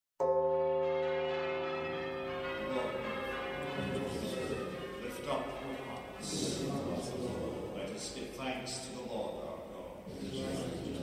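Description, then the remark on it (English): A church bell at St. Patrick's, a Roman Catholic parish church in the Cowgate section of Old Town, strikes loudly before the 7:45 early morning mass, its rich, humming tone lingering and slowly fading, while indistinct murmuring and shuffling sounds rise beneath the decaying ring. “I'm sitting in a pew at St. Patrick's Church in a section of Old Town called the Cowgate.”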